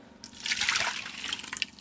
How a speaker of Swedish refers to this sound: Då värmer jag kardemumman med mjölken. Då får utveckla den mer smak och sen häller jag över den i en kastrull. Eller i en bunke. Så det får svalna lite.